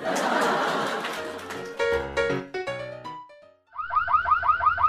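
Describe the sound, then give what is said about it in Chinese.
A burst of rushing noise gives way to a series of loud, stabbing electronic tones, then a short pause and a rapid, repeating warble of rising-and-falling alarm wails. “前方核能预警，各位单身人士，如果受不了秀恩爱，请火速撤离，这不是演习。”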